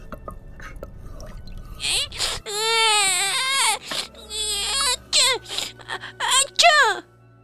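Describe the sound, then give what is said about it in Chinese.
The Duchess's baby in the story of Alice cries and wails loudly in high, strained bursts, alternating with sneezes in a kitchen full of pepper: one long drawn-out wail followed by several shorter, choppy sobs, after a brief low rumble at the start. “而且，至于那个婴儿呢？又是喷嚏，又是哭嚎，两者轮流发作，一刻也不停。”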